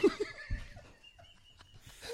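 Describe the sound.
A human voice imitates a jungle bird call: a wavering, warbling high-pitched cry that bends up and down, followed by a thinner sustained whistle-like tone, moderately loud.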